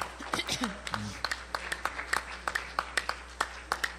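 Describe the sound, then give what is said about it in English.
An audience claps steadily for several seconds as a clap offering to God, sharp uneven hand claps overlapping into a lively patter, with a few voices calling out beneath the applause near the start. “Let's let's just let's just give God a clap offering.”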